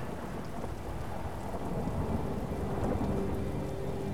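Steady rain pours down throughout, with a low thunder rumble rolling underneath. A dense, constant wash of storm noise with no voices.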